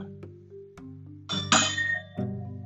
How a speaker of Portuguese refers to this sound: Vê só esse barulho. Yeah, são as minhas taças.